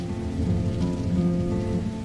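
Steady rain falls in a constant, even hiss for a couple of seconds, with a soft sustained tonal drone underneath. No one speaks.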